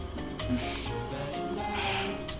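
A washing machine runs steadily, its low droning hum layered with swishing, churning noise that swells and eases at a constant, moderate level throughout, with no voices.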